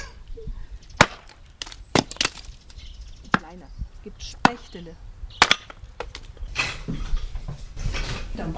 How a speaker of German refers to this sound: ich spalte erst ein bisschen Holz.